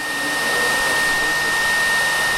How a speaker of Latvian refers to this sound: kurus notver vienā no telpām ar fēnu sildām audumu, kas siltumā maina krāsu.